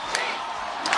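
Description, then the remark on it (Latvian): A large crowd of fans chants "Malači, Malači" together in unison during a ceremonial flower laying at the Freedom Monument, a dense, loud roar of many voices with brief swells of louder shouting near the start and end. “Jūs arī dzirdat fonā līdzekēji sauc Malači Malači.”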